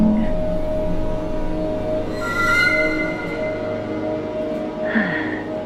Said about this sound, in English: Um, excuse me, sir? Why is the train not stopping?